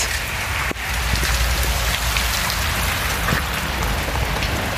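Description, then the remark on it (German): Hail patters steadily and densely on surfaces near Santiago, heard from under a small driveway, a constant loud hiss of countless small impacts with occasional sharper clicks, and no voices. “Also ich weiß ja nicht, wie sehr ihr das hören könnt. Aber es hagelt.”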